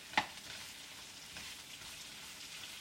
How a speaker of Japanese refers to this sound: 作り方見るとね強火で10分は玉ねぎを炒めてくれとしかもねたぬき色に炒めてほしいんだってきつね色じゃなくてたぬき色さらに濃いってことですよ